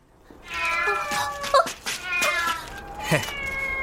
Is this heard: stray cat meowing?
yes